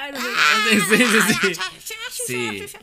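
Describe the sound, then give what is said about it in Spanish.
A single voice imitates rowdy people joking around and shouting at each other, letting out strained, wavering yelps and whooping cries for about three seconds, loud and continuous with a brief dip near the end. “Eh, de gente de gente hablando de chacota algunos algunos chacoteando gritándose”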